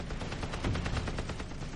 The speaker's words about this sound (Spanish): Las seis ametralladoras de calibre 50 del Hellcat pueden disparar 4.000 balas por minuto hacia su objetivo.